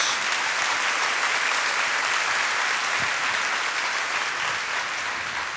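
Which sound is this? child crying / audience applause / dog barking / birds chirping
audience applause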